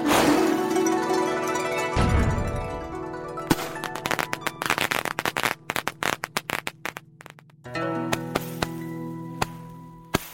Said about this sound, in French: Ces premiers artifices devaient plutôt ressembler à des pétards.